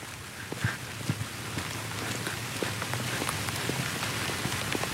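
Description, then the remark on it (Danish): Steady rain falls in a forest at night, a dense hiss filled with countless drops pattering on leaves and ground, some crisp, at an even moderate level with no voices. “Ej, hvor det regner nu.”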